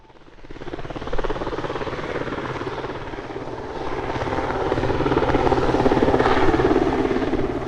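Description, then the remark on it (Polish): An SH-3 Sea King rescue helicopter approaches and passes overhead, its rotor chopping in a steady, fast thud over a broad engine roar that grows louder and fuller toward the end. “SH-3 Sea King, duży śmigłowiec ratowniczy, w końcu nadleciał.”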